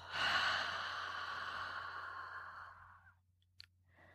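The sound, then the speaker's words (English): A long, breathy exhale through the mouth after three quick sniffs in a breathing exercise, fairly loud at first, fading gradually over about three seconds, followed by a brief faint click. No talking. “Three quick sniffs and a long exhale.”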